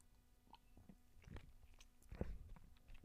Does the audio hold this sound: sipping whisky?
yes